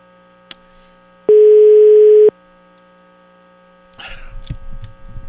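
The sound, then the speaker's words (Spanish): A telephone ringback tone sounds once, a loud, steady mid-pitched beep about a second long, over a constant low electrical hum, followed later by rustling, clattering handling noise. “A ver, a ver, suena ocupado. Me dijeron que le hiciera después de la una y media porque regresa a comer después de esa hora.”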